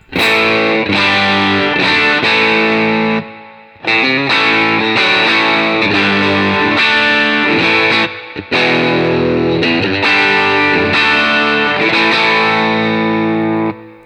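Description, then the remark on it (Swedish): An electric guitar plays loud, overdriven chords and riffs through an Elec overdrive pedal with all its knobs set straight up at 12 o'clock, with a thick, saturated tone, pausing briefly twice between phrases. No one speaks. “Eh, och nu har jag ställt in den här fantastiska eh, Elec-pedalen med allt rakt upp.”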